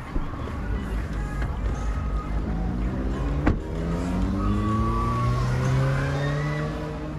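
A car engine revs and pulls away from the roadside to find a parking spot on a huge field, its pitch rising as it accelerates, with a brief sharp click midway and faint background murmur throughout.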